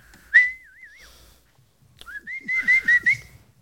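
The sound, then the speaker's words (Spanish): A person whistles a loud, high signal call meant to be heard at a distance: a sharp rising note bending into a wavering trill, then after a pause a series of repeated shrill bursts with a rising pitch. “Era el pito, vamos.”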